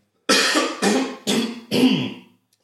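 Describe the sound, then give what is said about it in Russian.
A person with a cold coughs four times in quick succession, harsh, each burst raspy and strong, the last one trailing off slightly longer. “Я хочу покашлять.”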